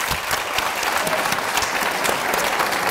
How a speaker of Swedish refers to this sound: Med en applåd